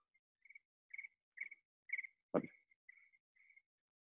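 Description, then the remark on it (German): A phone's ringtone plays softly, a series of short, high, chirping tones repeating in an even rhythm, with one brief thump partway through and no talking. “Ne, das ist also, ein sehr sanfter ähm, Ton, den du hast.”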